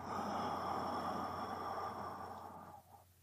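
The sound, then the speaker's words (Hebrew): A single slow, steady exhale, fairly strong, breathy and drawn out for nearly three seconds before tapering off into quiet, part of a counted breathing exercise of three counts in and four counts out. No talking. “ככה אני רוצה להמשיך, כל נשימה זה שלוש, ואני מוציא ארבע.”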